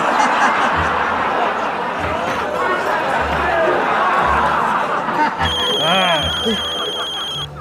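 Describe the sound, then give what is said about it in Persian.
Lively voices and chatter fill the scene, then a telephone starts ringing near the end, a bright electronic ring cutting clearly through the talk for the last couple of seconds. “آخه الان وقت زنگ زدن”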